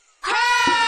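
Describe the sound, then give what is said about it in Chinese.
After a brief moment of quiet, voices let out a single loud, sustained roar imitation, a bright, strained vocal cry held steady until the end. “我要用吼声来警告它。”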